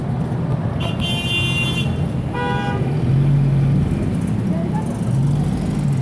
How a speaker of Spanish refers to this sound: A todos nos ha pasado, estamos atrapados en el tráfico justo el día que salimos tarde y para variar, ese día tenemos una reunión importante.